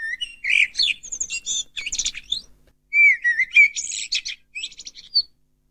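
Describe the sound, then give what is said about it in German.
A common blackbird sings clearly, rich melodic fluting phrases mixed with high twittering notes, delivered in two bursts separated by a short pause, with no voices present. “Dann haben wir als nächstes die Amsel.”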